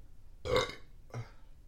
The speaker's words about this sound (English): and I could still burp with the soda.